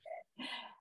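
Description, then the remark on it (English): The speaker's dog barks twice in quick succession, a short yelp followed by a longer, rougher bark, loud, with no one speaking. “Uh, should I just keep going over her? Yeah, barking?”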